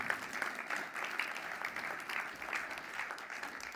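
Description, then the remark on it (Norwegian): An audience claps steadily, a dense patter of many hands held at an even, moderately loud level throughout, with no voices standing out. “Da må vi gi disse folka her en skikkelig applaus.”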